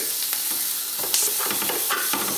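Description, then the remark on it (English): Bacon sizzles and crackles in a hot, smoky pan while it is pulled apart into lumps with a fork and spatula, a steady frying hiss with irregular clinks and scrapes, no voices. “So I've pulled bacon apart with a fork and spatula, so it's got lumps of it now.”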